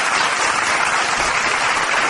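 Steady, dense applause from a crowd, a continuous wash of many hands clapping at once, fairly loud and close, with no voices standing out.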